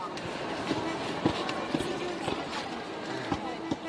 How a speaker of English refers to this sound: You're hearing the train announcements and the train whistles and these long lines of people climbing onto the tracks. It feels to me like another era. This train is heading toward Lviv in the west, and now people are trying to crowd on.